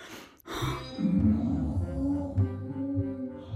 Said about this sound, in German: Jorona hört das Schnarchen seiner betrunkenen Wirte.